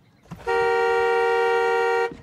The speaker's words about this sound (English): Because look, when I inhale, my titty make the horn honk. Listen. You see that?